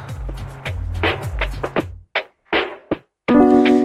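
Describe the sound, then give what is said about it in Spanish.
A song's instrumental intro plays: punchy percussive hits over a repeating low bass line, a few abrupt pauses, then a sustained, bright chord swells in at the end. No voices. “La canción se llama …. ¿eh? Qué linda voz que tiene, por favor. Y suena de esta manera.”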